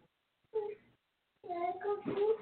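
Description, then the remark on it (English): A toddler girl's high-pitched voice babbles in two short bursts, a brief utterance followed by a longer, more animated stretch, clear with a pause between, as she looks for fruit snacks. “I, am talking to my toddler. She's looking for fruit snacks.”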